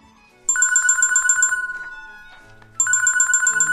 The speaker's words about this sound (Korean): 에이, 알람인가? 아유. 어 아니네. 어? 딸 전화네?